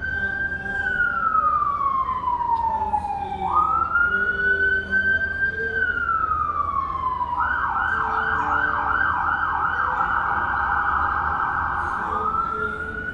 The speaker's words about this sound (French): pas la police, c'était une ambulance. Voilà, maintenant qu'elle est passée, on va pouvoir revenir.